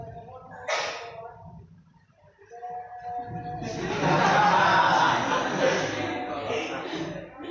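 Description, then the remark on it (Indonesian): A person vocally imitates a horse: a brief snort-like burst, then a loud, rough, wavering whinny that carries for several seconds, with no other sounds around it. “suara jaran gitu”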